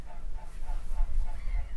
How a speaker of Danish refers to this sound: Så, nu kommer lige to svaner flyvende. Og svanen er jo verdens næst tungeste fugl, der kan flyve.